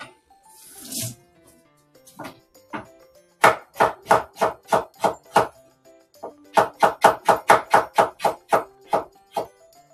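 A knife chops ginger on a cutting board, to be added to komatsuna greens, in two quick rhythmic runs of crisp strikes, about a dozen each, after a brief rustle and a couple of single taps.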